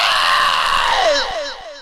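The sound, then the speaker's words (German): A loud, strained human scream held for over a second, bright and harsh, then sliding downward in pitch as it trails off; a single performed vocal cry with no other sounds. “Er schreit laut auf.”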